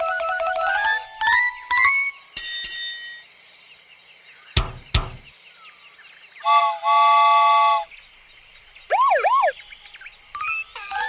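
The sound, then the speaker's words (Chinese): A train whistle sounds in several bursts: short rising toots, a couple of sharp knocks, then a long steady multi-tone blast followed by quick wavering hoots, with no one talking. “我们来听听火车的汽笛声吧。”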